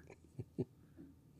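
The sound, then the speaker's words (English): Faint gnawing of a dog chewing on a bone, with two short crunchy bursts about a fifth of a second apart and softer scraping around them. “Oh, yeah, he's chewing on a bone.”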